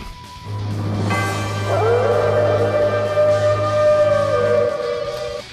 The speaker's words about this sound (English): gonna play that other cat sound I got.